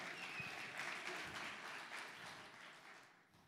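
Audience applause fills the moment, a dense, steady patter of many hands clapping that holds strong before gradually thinning and fading toward the end. No one speaks over it.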